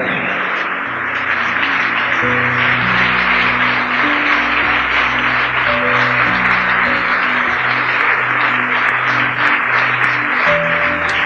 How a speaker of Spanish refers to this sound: Demos un aplauso a nuestro Señor, aleluya. Apláudele a Él.